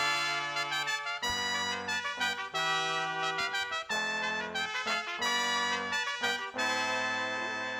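A bright, loud trumpet melody opens a lively song, with punchy brass phrases over a steady bass and band accompaniment, playing continuously with no voices.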